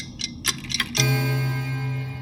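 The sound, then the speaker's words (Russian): A grandfather clock ticks with a few steady, evenly spaced clicks as midnight approaches, then a deep sustained tone swells in and hangs underneath, like the clock beginning to chime. “Громоздкие напольные часы, будто метроном, отмеряют ход времени.”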